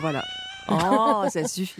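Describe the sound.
A cat meows close by, a drawn-out cry followed by a couple of shorter ones, while a man speaks briefly over and between the calls.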